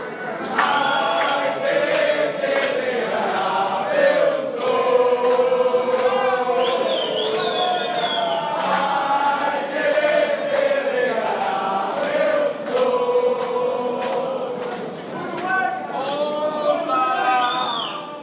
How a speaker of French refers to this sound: Inchada uruguayenne pour qui visiblement la Coupe du Monde avait déjà commencé dans l'avion et dans l'aéroport. On écoute ça.